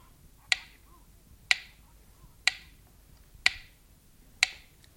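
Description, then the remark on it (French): A clock ticks steadily, five sharp, crisp clicks spaced about one second apart, fairly quiet, with no voices over them. “L'horloge peut frapper ses coups.”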